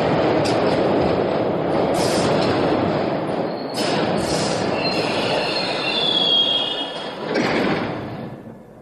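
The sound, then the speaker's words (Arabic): Train brakes squeal loudly as an engineer turns the brake lever a full turn and the brake pads snap into place, against a heavy rumble of rolling rail cars, with shrill metallic screeches flaring up repeatedly through the middle and end, no voices. “فأسرع المهندس إلى عتلة الفرامل وأدارها دورة كاملة وصدر عن ذلك صوت مرتفع حيث اندفعت وسائد المكبح إلى مكانها”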